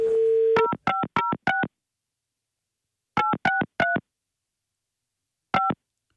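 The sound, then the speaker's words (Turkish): A steady dial tone cuts off into a quick run of four telephone keypad beeps, then a pause, three more, another gap and one final beep, all clean with no talking, as a phone number is dialed to make a call. “Abi o seslerden numarayı bulurlar diye.”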